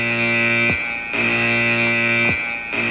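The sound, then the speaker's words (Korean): A digital door keypad lock alarm, set off after the passcode was entered wrong five times, blares loudly and without pause, a harsh buzzing electronic tone that cycles with a brief dip about every second and a half; the keypad lock stops working. No voices are heard. “비밀번호가 다섯 번이 틀리자 엄청난 경보음이 나면서 번호키가 먹통이 돼버린 거죠.”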